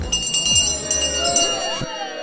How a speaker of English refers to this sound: All right, that's the last call bell, so I think we'll wrap things up on episode 11 of Sips with the Tips.